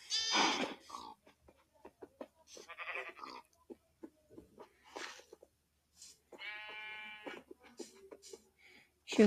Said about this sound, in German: Es hat dieses Schaf schon wieder.